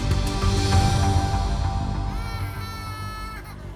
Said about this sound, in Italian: La bambina piange.